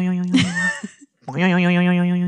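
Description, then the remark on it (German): A voice imitates a cartoon spring boing, like a bed spring poking into someone's back, a loud twangy wobble, then after a brief pause a second sustained, warbling vocal boing that holds steady to the end. “Boah, ey, wirklich, ich hatte, ich habe jede Spirale, wie in so einem schlechten Comic, wo der ist doioioing, schön in den Rücken rein.”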